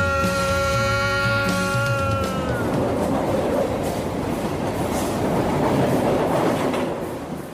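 A metro train rumbles steadily along the rails, loud, with a high electric motor whine that fades after the first couple of seconds, leaving a dense rolling roar.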